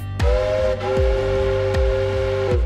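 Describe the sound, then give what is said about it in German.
A steam locomotive whistle holds one steady, mid-pitched tone throughout, while loud, heavy puffs of exhaust chuff at an even, slow rhythm underneath. “Aus jeder Richtung kam eine Dampflok.”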